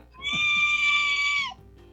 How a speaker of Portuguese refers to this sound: Põe o grito daquele bode pode.